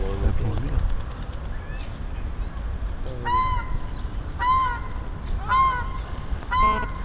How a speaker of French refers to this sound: Non, c'est le petit canard marron qui fait ce cri là en fait.